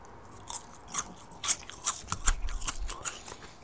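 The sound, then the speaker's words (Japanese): Crisp crunching bites of something tough, repeated in an irregular rhythm of about a dozen sharp chews over a few seconds, with no talking. “んいや、これは絶対食っちゃいけない何かじゃねえかプラスチック的な 噛み応えがあったんだけど、なんだろうこれ。”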